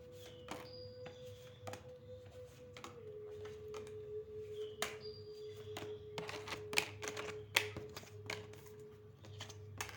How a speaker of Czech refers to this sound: Já už se dívám na vaši fotku, míchám u toho karty a podíváme se teda spolu, co nám Tarot řekne o tomto partnerském vztahu.